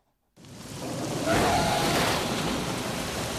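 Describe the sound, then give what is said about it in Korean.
A dense roar of storm rain and crashing sea waves on a stormy, gloomy night at the Namhae seaside in Korea rises quickly after a brief silence and holds steady and loud, a continuous wash of water noise with no voices. “폭풍우 몰아치던 음산한 밤 결혼 5주년을 맞아 남해 바닷가 자신의 별장으로 오던 안나 차가 구덩이에 빠지면서 펑크가 나고 말죠.”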